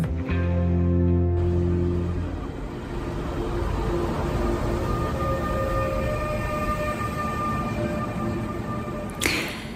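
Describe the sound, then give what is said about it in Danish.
A train rolls steadily into a station platform with a low rumble, a brief tonal horn-like blast at the start and a faint sustained whine of wheels or brakes, ending with a short hiss. “Man står øh, på perronen og venter, og så ruller toget stille og roligt ind, og folk kigger op.”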